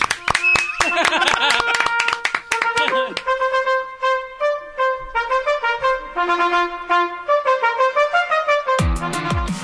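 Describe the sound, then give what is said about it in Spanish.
A burst of hand clapping at the start, sharp and fairly rapid, mixed with a tonal voice or melody that then carries on alone before a few more claps at the end. “Déjele aplaudir primero.”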